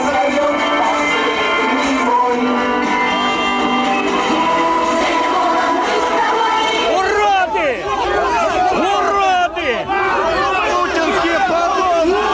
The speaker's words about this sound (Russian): Полиция заявила о себе только когда участники митинга начали скандировать лозунги в поддержку Алексея Навального.